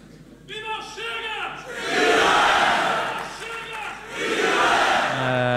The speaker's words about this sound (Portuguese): A altura em que se gritam eh, palavras de ordem eh, pelo partido Viva o Chega, ouviu-se neste auditório eh, do eh, Centro Nacional de Exposições e Mercados Agrícolas Santarém.